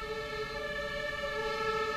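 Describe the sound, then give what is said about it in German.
A siren sounds outside with a steady, held, harmonic tone, fairly soft, continuing throughout with no speech over it. “So, passt jetzt, ne? Sirenen.”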